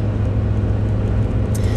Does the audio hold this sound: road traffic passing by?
yes